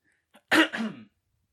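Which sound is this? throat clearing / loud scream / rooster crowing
throat clearing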